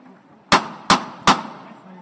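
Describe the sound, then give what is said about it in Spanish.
Three sharp, ringing hammer knocks from the knocker of a processional float in Jerez on Palm Sunday strike in a quick, even rhythm, loud, each with a brief metallic decay over a faint background murmur. “Atento al martillo que suena.”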